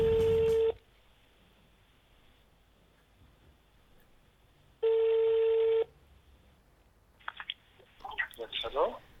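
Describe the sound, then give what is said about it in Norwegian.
A telephone ringback tone from an outgoing call sounds twice, each a steady electronic beep about a second long separated by a few seconds of quiet line hiss, before a voice starts talking at the end. “Jeg ringte eh, Erik Solheim, jeg”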